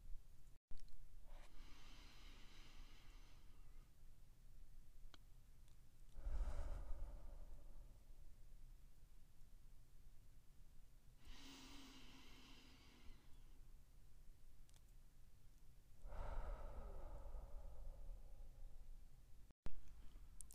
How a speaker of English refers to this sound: Take a deep breath in through your nose and out through your mouth. Inhale for a f- count of four and exhale for a count of four. Try to keep your breathing at this slow pace.